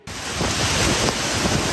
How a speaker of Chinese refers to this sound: 这一头大风大雨，树林也被吹得东倒西歪。十四号热带气旋摩卡在孟加拉的科克斯巴加尔与缅甸若开邦的石堆市附近登陆，狂风暴雨立刻在两国造成灾情。